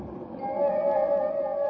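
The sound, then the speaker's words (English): A train moving along the rails, with a steady rumbling roar and a sustained metallic whine that swells slightly and holds, continuous, with no voices. “But it took longer than I thought it would to convince a highly suspicious engineer so that by the time he agreed to stop the train, if so ordered, we were only a scant minute from Dale Creek.”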